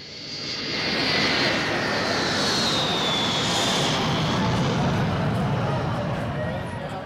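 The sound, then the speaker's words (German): Loud, steady roar of jet engines at an airport in summer heat, a broad rushing drone with a high whine sweeping over it, holding for several seconds without a break. “Am Flughafen kommen bei sommerlicher Hitze etwa 100 Journalisten ins Schwitzen.”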